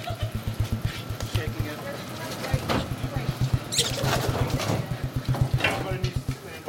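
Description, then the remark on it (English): During a rat hunt, dogs pounce on rats knocked tumbling down a stairway, scuffling and lunging amid a chaotic burst of shrill squeals and sharp scraping, over a rapid, steady low thumping, with muffled voices in the background. “They start tumbling down the stairs. And then at that point, the dogs pounce onto the, the rats.”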